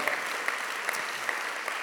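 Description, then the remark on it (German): Steady applause from an audience welcoming the linked locations Rapperswil, Wetzikon, Winterthur, Fraufeld, Bruck and Zürich, a dense wash of many hands clapping at an even level with a few sharper claps popping out, no voices over it. “Applaus alle Locations.”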